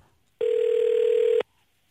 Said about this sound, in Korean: 예, 전화 한번 걸어보겠습니다.